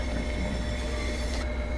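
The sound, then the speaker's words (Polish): A powerful diesel train rumbles past, a loud, steady roar of engine and wheels with a faint metallic whine on top and no voices. “Jest to pociąg spalinowy, diesel potężny, diesel.”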